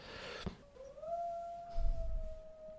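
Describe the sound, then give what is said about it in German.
A dog lets out a single long howl, sliding up at the start and then holding a steady, drawn-out tone, with some low thumping noise partway through and no talking. “so, ich der Hund jault im Hintergrund.”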